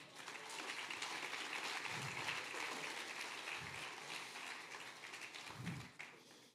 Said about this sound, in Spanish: ¿Cuánto da un aplauso al Señor?